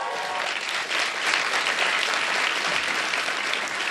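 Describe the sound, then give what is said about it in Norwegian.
SV party members at the party's national congress applaud after party leader Audun Lysbakken's speech, many hands clapping in a dense, even wash of sound that holds at the same loudness throughout, with no voices rising above it. “Og SV-erne de klappet.”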